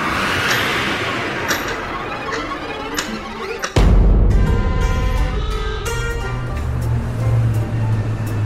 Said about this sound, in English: Is it just me? Or can you hear traffic?